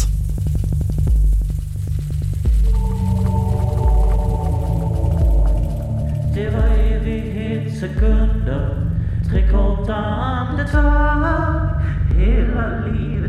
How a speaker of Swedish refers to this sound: Ja, vi går vidare med den sista låten för veckan